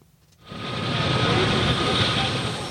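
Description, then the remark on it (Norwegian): A helicopter coming in to land in Mali, whirling up Sahara sand: its engine and rotor noise swells in after a short quiet moment, then holds as a loud, steady roar with a faint high whine. “Sahara-sand virvler opp rundt helikopteret som er på vei inn for landing.”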